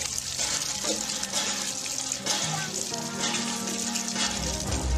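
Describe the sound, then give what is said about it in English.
Fresh water pours and splashes steadily from a drilled fresh water well, a loud, continuous rushing, with faint voices murmuring in the background. “many of the people are coming to the Lord, dedicating their lives to the Lord because we're drilling fresh water wells for them.”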